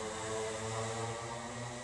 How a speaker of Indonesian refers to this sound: ih motor nih suaranya ganggu banget tengah malam